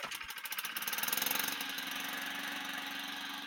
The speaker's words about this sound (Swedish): Hör ni? Ja, fan har du köpt klippare? Honda! Precis. Det där är senaste uppdateringen av ICE på Hondan.